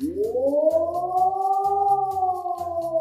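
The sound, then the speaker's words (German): A civil defense warning siren in Germany, tested during the nationwide warning day at 11 a.m., wails steadily, its tone rising and then holding a sustained high pitch, loud and continuous, with a rhythmic low rumbling pulse beneath it. “Beim bundesweiten Warntag sollten um 11 Uhr alle Sirenen getestet werden.”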